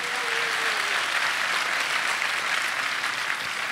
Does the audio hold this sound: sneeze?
no